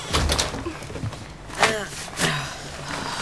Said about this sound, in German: Mach die Tür zu, Opa.